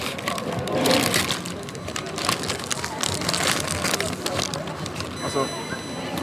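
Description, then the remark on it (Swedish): Continuous crinkling and rustling of fast-food burger wrapping paper, with irregular crackly bursts for several seconds, fairly loud and dry, and no clear talking over it. “Nu lägger jag ifrån mig mikrofonen här så får ni höra prasslet från pappret.”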